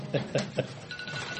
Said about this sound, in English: That's my phone going off.